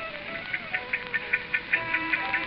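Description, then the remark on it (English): A wound-up watch that hangs behind a bar ticks steadily and quickly, roughly five light, crisp ticks per second, fairly quiet, with a faint sustained tonal hum underneath and no one talking. “Sometimes, listening to that watch ticking away, I can almost imagine that Tom's telling the story himself in his own words.”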